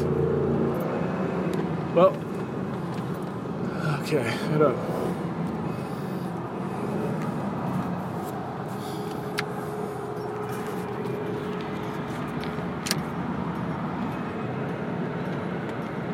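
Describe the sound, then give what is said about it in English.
A car engine with a faulty, non-working accelerator runs with a steady low rumble throughout, with a few brief knocks and clicks early on and a person speaking a couple of short words. “My car is having problems.”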